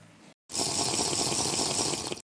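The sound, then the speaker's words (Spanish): Water being poured for drinking: a steady rush for about two seconds, hissy and bright, starting abruptly after a brief pause and stopping just as suddenly. No one speaks. “me voy a tomar agua.”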